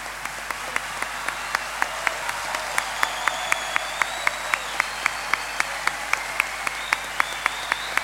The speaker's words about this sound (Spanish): Que este aplauso, querido Jairo, te lo lleves en el corazón